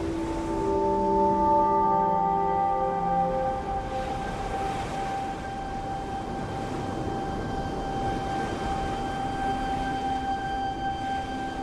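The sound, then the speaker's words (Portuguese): Underwater sea ambience at the Abrolhos coral reef, the largest coral sanctuary in the South Atlantic and a breeding area of humpback whales: a steady wash of hissing, crackling background with long, sustained tonal moans and hums drifting over it, changing pitch early on, then holding steady. No voices. “Nós estamos ouvindo o som do mar de Abrolhos, o maior santuário de corais do Atlântico Sul e principalmente a área de procriação das famosas baleias jubarte.”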